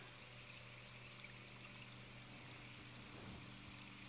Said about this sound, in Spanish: haciéndote consciente de cómo fluye el agua.